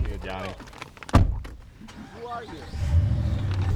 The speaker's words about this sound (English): As soon as the clock hits one, they hop in their truck and speed back towards the Porcupine Mountains.